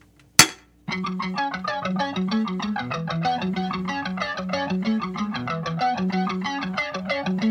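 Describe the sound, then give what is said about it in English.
One sharp, bright clink of glasses in a toast right at the start, then a steady rhythmic music track takes over and plays to the end. “And cheers.”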